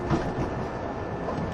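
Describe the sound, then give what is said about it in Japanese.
A 185 series express train running on the Tokaido line as it approaches Atami station, with a steady, even rumble and rushing roar that holds at a constant loudness throughout, and no voices. “まもなくこの電車熱海に到着いたしますが連結の作業を行うため何とか停車をいたします”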